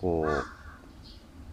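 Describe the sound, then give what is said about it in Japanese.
A loud, harsh bird call rings out, a single raspy caw, followed by quiet outdoor ambience with a faint, brief chirp and a short spoken word, heard from the terrace of a ryokan's detached open-air bath in a forest in Hokkaido. “鳥の声。”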